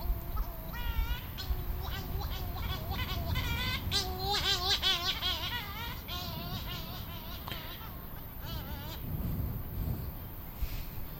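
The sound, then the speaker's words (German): A steady wash of sea waves rolls underneath, swelling louder near the end, while gulls call repeatedly over the top in wavering, overlapping cries. “Du hörst ja das Meeresrauschen.”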